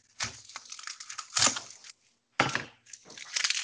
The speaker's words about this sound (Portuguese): Eu tô cortando uma cebola, então eu tô ouvindo você.